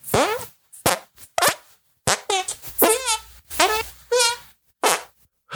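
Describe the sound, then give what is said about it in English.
A run of about ten squelchy, buzzy fart-like noises made by squeezing hands together, loud, in short irregular bursts with brief gaps between them. “Uh, I can put my hands together and make fart sounds like this.”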